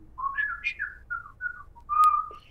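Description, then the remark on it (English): A man whistles a birdlike call imitating birds: a quick run of warbling, rising and falling notes, then a longer steady whistle, clear with no talking. “And I was like, oh my God, my dad is talking to birds.”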